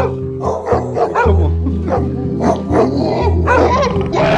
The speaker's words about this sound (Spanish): Hay muchos perros. ¿Dónde tiene todos estos animales, señor?